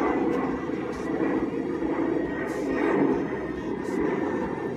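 airplane flying overhead

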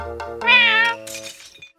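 cat meowing

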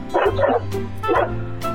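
small dog barking

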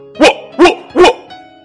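dog barking

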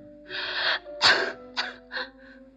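persistent coughing

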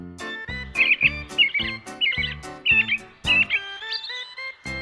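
birds singing

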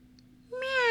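cat meowing

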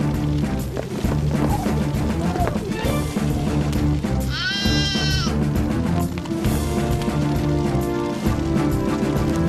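lamb bleating

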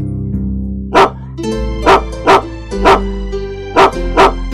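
dog barking

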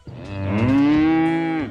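cow mooing

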